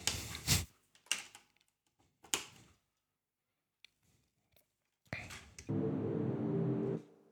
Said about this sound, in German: Dafür müssen wir nochmal kurz Stecker stecken.